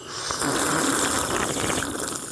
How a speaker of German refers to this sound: die beiden Weltmeister im synchronen Kaffee trinken. Die Synchronschlürfer.